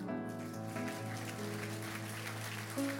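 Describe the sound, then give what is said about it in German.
A crowd at an ICF church service claps steadily, a dense, continuous patter of many hands giving children a warm round of applause as they go down, with sustained keyboard or organ chords ringing underneath. “Geben wir doch diesen Kids, wenn sie jetzt runtergehen, noch einen herzlichen Applaus.”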